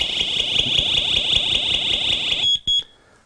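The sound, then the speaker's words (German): A loud, piercing smoke detector alarm shrieks continuously for over two seconds, then cuts off and gives two short sharp chirps; the detector, which links to an alarm system, is being tested in a studio by holding down its test button. “So, also Sie haben es gehört, er piept auch selbstständig ein bisschen.”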